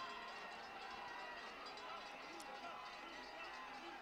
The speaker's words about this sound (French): On entend ses encouragements sur euh, le bord de la piste.